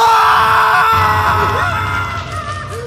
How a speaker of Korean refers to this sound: 비명과 비명의 소리들이 오브라 마을을 뒤덮는 끔찍한 날이었습니다.